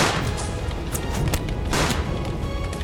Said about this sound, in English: and within moments, they were deep in it, gathering into a withering crossfire of cannons and muskets.